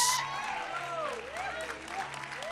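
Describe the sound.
An audience applauds in a steady, dense patter of clapping lasting a few seconds, with voices rising and falling over it.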